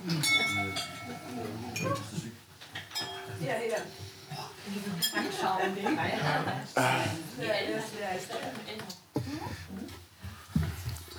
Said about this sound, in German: Stößchen! Stößchen! Stößchen! Oh, gehen die Gläser da um.